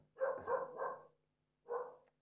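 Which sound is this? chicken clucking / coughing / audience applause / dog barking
dog barking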